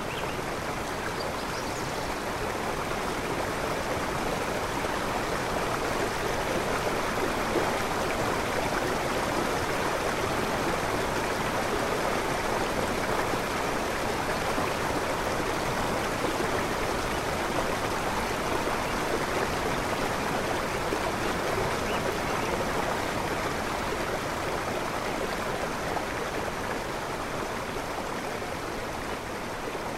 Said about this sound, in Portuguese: Nessa época do ano, pequenas cachoeiras começam a se formar à medida que a água vai escorrendo pelas montanhas. É um espetáculo visual e sonoro incrível.